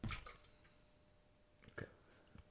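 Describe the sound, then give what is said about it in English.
Water splashes into a glass in short, quiet bursts, a louder gush at the start followed by two brief pours near the end, with no talking. “Enough water again”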